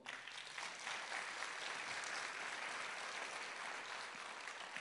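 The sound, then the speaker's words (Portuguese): Sustained applause from a church audience applauding the Lord, a dense, steady wash of many hands clapping at an even level for the whole stretch, with no voices over it. “Aplauda ao Senhor.”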